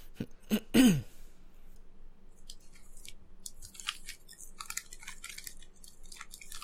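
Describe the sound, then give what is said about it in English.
Someone crunches on potato chips from a small personal-size bag, finishing off the last of them. A few loud, sharp bites come at the start, then a steady run of softer, crackly chewing crunches with no talking. “As I finish off the last little bit of my chips, I just had a little uh, one in the personal bags.”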